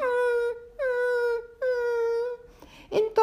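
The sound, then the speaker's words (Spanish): A voice imitates a lion whimpering and crying in a mountain cave: three drawn-out, mournful wails in a row, each sliding slightly downward, followed by a few short broken sobs, fairly loud. “Eh, y el león estaba gimiendo, llorando.”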